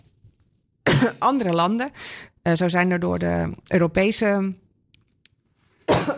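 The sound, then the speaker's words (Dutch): On live radio, a woman speaking chokes mid-sentence and breaks into short, harsh coughs and throat-clearing bursts, then carries on talking between the sputters. “Dat je gewoon toch nog eventjes eh, een beetje kan verslikken.”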